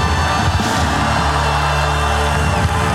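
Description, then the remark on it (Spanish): A crowd erupts in a loud, sustained shout of victory, many voices yelling and whooping together at full volume for a few seconds with no break. “Dele un grito de victoria allá.”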